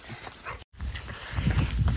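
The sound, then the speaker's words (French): Dogs come up close to the microphone, paws scuffling and thumping, the rustling noise growing louder as they arrive, with a brief moment of silence early on. “mes chiens arrivent.”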